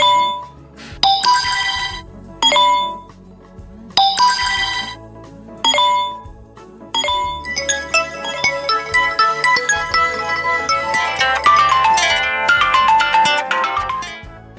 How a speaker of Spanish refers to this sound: ¿Y, y los celulares de los docentes no paran de sonar.